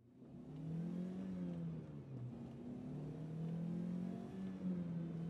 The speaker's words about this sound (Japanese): 片倉はサイドブレーキを下ろしてアクセルを踏み込んだ。